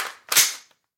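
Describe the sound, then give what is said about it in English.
A 30-round Magpul magazine is slammed into an AR-15 rifle with one sharp metallic clack that rings out briefly, then a faint click follows. No voices are heard. “That's the sound of a 30 round magazine being uh, it's the sound of a, uh, of a magazine getting slammed into an AR 15.”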